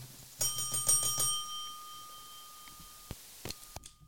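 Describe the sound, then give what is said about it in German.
A service counter bell, a kitchen pass bell from a game, is struck several times in quick succession, its bright metallic ring lingering afterward, followed by a couple of faint clicks near the end. “Das ist die Passklingel.”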